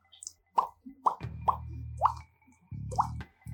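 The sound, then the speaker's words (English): Water drips in a cave one drop at a time, five clear plops at uneven intervals, with a low droning hum rising underneath for stretches between them. “Um, so you're looking around and you see that there's um, there is you know you can hear water dripping”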